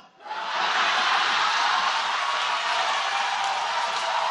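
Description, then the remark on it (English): A loud, dense wash of crowd noise from an audience in a big auditorium at a Barack Obama appearance in Flint: rowdy chatter and bursts of laughter blending into a steady roar that rises quickly and holds without a break. “Everybody settle down. This is a feisty crowd.”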